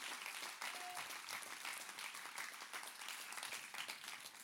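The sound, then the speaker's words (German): An audience applauds steadily for several seconds as a man is called onto the stage, a dense, even crackle of many hands clapping at once with no single claps standing out, and no one speaks over it. “Gebt ihm Applaus, er darf auf die Bühne kommen.”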